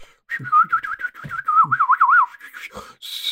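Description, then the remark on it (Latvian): A person whistles a warbling, birdlike tune, a wavering high melody with quick trills and slides, mimicking birdsong, with a few low breathy or voiced sounds between phrases. “nākamais ļoti svarīgais, bet ir arī putniem dziesmiņas tādas.”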